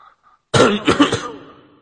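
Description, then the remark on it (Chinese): A young man in an internet café gives a loud, harsh cough after a moment of near-silence, breaking into a few rough pulses in quick succession before trailing off. No one is talking. “我看你旁边那小子老老丁咳嗽呢，”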